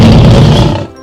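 A single loud lion roar, deep and rumbling, rings out in a forest in the early morning. It lasts about a second before quickly fading away, with no talking over it.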